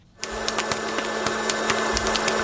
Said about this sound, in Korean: 이게 토치 직화구이 그거 소리예요. 토치 직화구이. 툭툭 소리도 나죠?